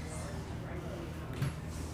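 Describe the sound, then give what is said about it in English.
A chair shifts with a low, drawn-out creaking scrape that runs steadily for about two seconds, with a small bump of extra noise near the end. “Was that a fart or a chair moving?”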